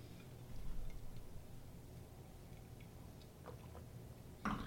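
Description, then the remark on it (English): Someone takes a quick drink of water: a few soft, wet clicks and gulps against low background hum, ending with a brief louder burst. No one speaks. “Before we do that, I'm going to take a real quick drink here.”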